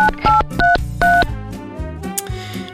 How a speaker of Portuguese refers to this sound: Até algum tempo atrás se discava o telefone. Hoje se tecla um número.